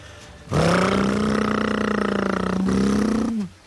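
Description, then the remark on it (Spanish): A voice imitates a motorcycle engine with one loud, continuous buzzing rev lasting about three seconds, holding a steady rough pitch, briefly catching midway, then trailing off at the end. “En un manicomio llega el inspector para hacer una revisión y en eso pasa un loco imitando una moto.”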